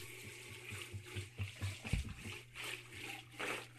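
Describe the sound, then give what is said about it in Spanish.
Water runs from a tap, turned on again, in a steady, fairly quiet stream, with uneven splashing and gurgling bursts as it hits a basin, and no voices. “Ya, abre, el agua otra vez, güey.”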